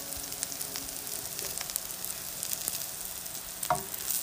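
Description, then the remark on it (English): Hamburgers sizzle steadily in a frying pan in a supported living home, a dense crackling hiss with scattered pops and a brief scrape near the end. No one speaks. “This is the hamburgers you can hear sizzling.”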